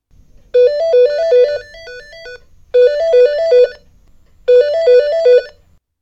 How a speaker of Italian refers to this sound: E quando arrivò il mio turno, proprio in quel preciso istante, squillò il telefono.